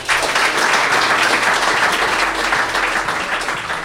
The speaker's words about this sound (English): please give a big round of applause for Bryan Birsic